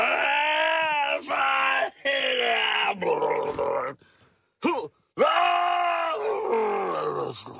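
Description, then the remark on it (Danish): A voice loudly imitates retching and vomiting, with strained, groaning heaves broken by short gasping pauses, forceful over several seconds. “Øh, jo, jeg råber jo, når jeg kaster op.”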